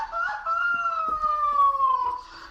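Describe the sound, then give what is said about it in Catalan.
A voice lets out a Mexican grito, one long, loud, high-pitched cry held for about two seconds and sliding slowly downward, somewhat like a rooster's crow. “Sí, no es un pollastre, un, un es un grito de, de dolor.”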